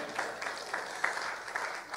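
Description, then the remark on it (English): Light, scattered golf clap from a small crowd, a few soft claps at a time, sounding polite rather than enthusiastic, with faint murmur underneath. “That was like a little bit, a little golf clap.”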